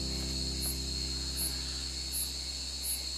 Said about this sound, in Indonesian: jangan sampai isinya tonggeret doang nih iya tenggeret